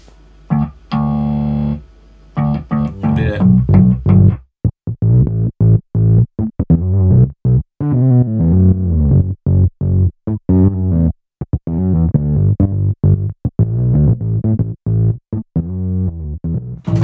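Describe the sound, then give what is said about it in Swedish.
A dense, distorted tone made for a specific song is chopped by a very hard noise gate, snapping on and off abruptly with sharp, clicky attacks and dead-silent gaps over and over, loud, with a brief voice near the start. “Men det, det är liksom en väldigt hård gate.”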